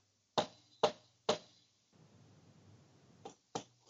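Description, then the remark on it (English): Three sharp, hollow wood knocks, like a branch struck against a tree trunk, land in an even, quick rhythm. Soft rustling follows, then two more slightly quieter knocks close together. “they take a branch and knock on a tree with it, and then they listen”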